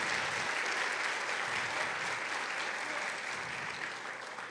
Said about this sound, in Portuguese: Glória a Deus, aplauda ao Senhor. Aleluia.